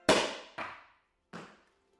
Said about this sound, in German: Es ist 4 Uhr morgens, als der Korken knallt.